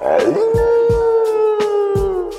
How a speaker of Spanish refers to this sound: ¿Alguna vez has escuchado a un perro aullar a la luna? Esta es solo una de sus formas de comunicarse, llamando la atención de sus acompañantes humanos o hablando con otros perros.